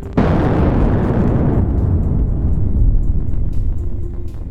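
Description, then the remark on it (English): The volcanic eruption of Krakatoa blasts off with a sudden, loud boom, then keeps roaring as a dense, deep rumble that slowly loses its hiss over a few seconds. No voices are heard. “The name of the origin of this sound was Krakatoa.”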